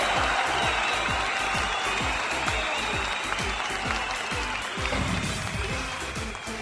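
An audience applauds steadily to welcome a guest who has just arrived, a dense, loud wash of many hands clapping that holds at an even level for several seconds with no voices standing out.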